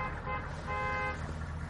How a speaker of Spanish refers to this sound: Haftis oye un coche llegar y se asoma a la ventana.